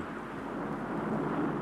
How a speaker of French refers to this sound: Vous entendez C'est le bruit de la mer. Ça fait des mois et des mois que je l'écoute et ça me suffit.